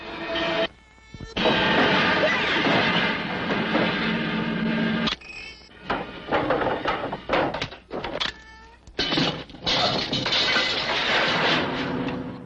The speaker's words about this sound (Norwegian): beveger vi oss over på eh, Motorsagmassakren fra 1974, og vi hører traileren